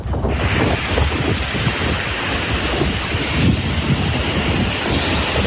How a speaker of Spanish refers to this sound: el sonido de las fuertes rachas de viento que han dejado olas de más de 5 metros de altura en puntos de la provincia de Cádiz y son algunas de las consecuencias de la borrasca Carlota que trae lluvias necesarias y también descenso de las temperaturas